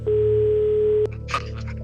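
A steady single-pitched telephone tone holds for about a second, then cuts off with a click, followed by faint line noise and brief muffled sounds as a phone call from Norway connects.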